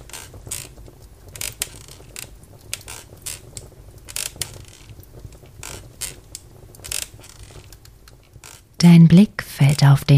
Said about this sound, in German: Schaukelstuhl gibt leicht nach, als du dich hineinsinken lässt. In einem langsamen Rhythmus schaukelst du vor und zurück.